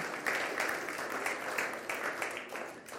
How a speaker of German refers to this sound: Geben wir mal einen Applaus diesem Bäcker. Danke sehr. Danke.